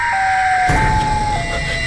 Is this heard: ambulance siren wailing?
yes